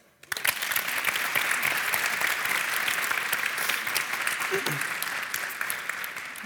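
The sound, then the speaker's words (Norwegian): An audience at Studentersamfunnet i Bergen breaks into steady applause after a brief silent moment, welcoming professor of medical ethics Ole Fridtjof Norheim, a dense, continuous wash of clapping that holds loud for several seconds and eases only slightly toward the end. “Gi ham en applaus.”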